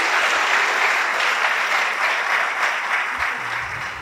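A crowd in Peru applauds the EGAP cooking school steadily, a dense wash of many hands clapping at once that stays loud throughout and only eases slightly toward the end, with no voices standing out.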